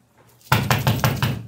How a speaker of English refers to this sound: Nobody knocks on uh, your door like that, but right. policemen at four thirty-five o'clock in the morning.